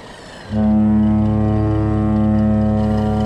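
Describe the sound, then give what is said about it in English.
A boat's deep, loud horn blares in one long sustained blast that starts abruptly after a short quiet moment and holds steady to the end, with no voices; a patrol boat ahead on a river tributary. “But is there enough room for us to get by that boat up ahead?”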